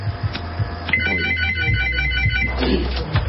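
A phone ringtone plays, a bright repeating electronic melody with steady tonal notes over a low background hum, moderately loud, with no talking.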